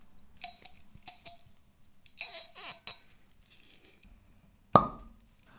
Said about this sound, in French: Donc là, on va pouvoir goûter ça dix ans plus tard parce que c'est un millésime 2012. On s'ouvre cette bouteille, on goûte.